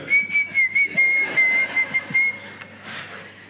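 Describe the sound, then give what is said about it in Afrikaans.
A man whistles a quick series of short, high, repeated notes in a steady rhythm for about two seconds, fairly loud, then falls quiet over faint background noise. “Kom ek fluit vir julle.”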